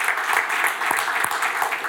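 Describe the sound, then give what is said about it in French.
A crowd claps steadily, a dense, even wash of many hands applauding at once with no pauses, fairly loud throughout with a few sharper claps standing out. “Quelqu'un peut dire Amen, vous pouvez applaudir.”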